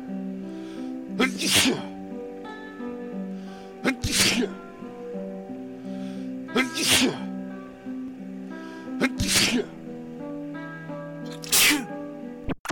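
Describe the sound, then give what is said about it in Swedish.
A person sneezes five times, one loud burst every two to three seconds, with steady music playing underneath throughout, in part 21 of the comedy segment 'Vardag med veganen' (Everyday life with the vegan), titled 'The vegan sneezes'. “Veganen nyser.”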